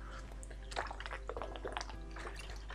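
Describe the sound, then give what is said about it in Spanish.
Water pours into a glass or cup, a soft, uneven trickle with small splashy bursts and gurgles lasting a few seconds, fairly quiet, with no one talking. “Voy a ver un poco de agua.”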